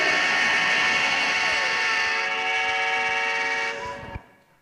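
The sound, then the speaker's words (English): A train whistle blows one long, steady, loud blast lasting about four seconds, rich and chord-like, then cuts off abruptly. No voices are heard. “Can you hear that whistle blowing?”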